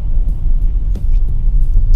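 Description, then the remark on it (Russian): Steady low-frequency rumble of a car interior while driving along Kutuzovsky Prospekt in Moscow at almost 9 p.m. amid heavy traffic jams, a constant loud engine and road drone with a few faint brief clicks above it. “Еду в машине, записываю свой подкаст.”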